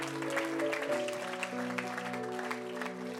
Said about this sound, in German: Gott ist so gut. Lass uns Gott einen Applaus geben.